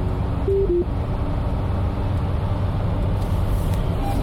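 Steady low rumble of road noise inside a moving car heading for the Winston Churchill Boulevard exit, a constant dense hum filling the cabin, with a couple of brief faint tonal beeps near the start.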